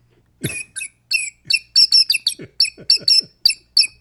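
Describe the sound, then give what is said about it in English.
A bird-call whistle blown in a quick series of about a dozen bright, chirpy squeaks, irregular, with soft low thumps under some notes and no talking. “I'll have to play my bird call that Brian got me.”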